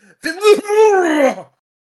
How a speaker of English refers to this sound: you could have pranked her and uh, like coughed really loud when they said the price.